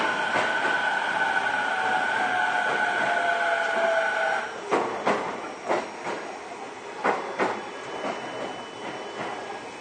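A Toei 10-300 series (third batch) commuter train runs between Shinsen-Shinjuku and Takaosanguchi, its steady electric motor whine fading after a few seconds into a rhythmic series of wheel clacks over rail joints, heard from inside.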